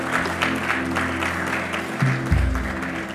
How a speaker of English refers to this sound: Give the Lord a good clap of it.